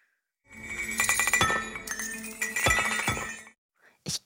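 A bell rattle shaken in a steady burst of bright, metallic jingling for about three seconds, then a short pause and one quick final shake. Fairly loud, with no voices.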